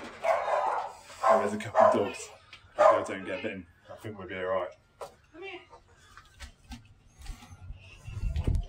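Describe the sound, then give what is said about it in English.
A dog at a house barks loudly in several quick bursts over the first few seconds, then things quieten to softer rustling and a low rumble. “can put the dog away.”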